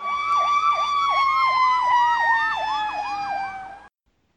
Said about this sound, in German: Oh, das piepst aber gewaltig. Ja, das piepst aber hammermäßig. Warte. Äh, das dauert nicht mehr lange. Hören das eigentlich nachher die Hörer, das Piepen?